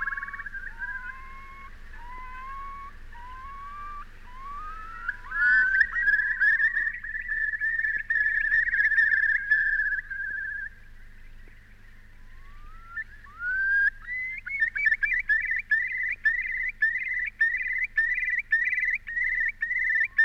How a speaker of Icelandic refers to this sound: hann nefndi líka spóan, heyrum hann vella.